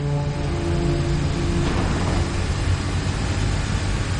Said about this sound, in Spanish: Arthur viaja en un autobús mirando serio por la ventanilla.